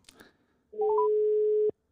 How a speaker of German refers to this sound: Hörst du das Klingeln, Axel?